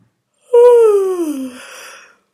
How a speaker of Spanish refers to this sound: Ahora vamos a bostezar estirándonos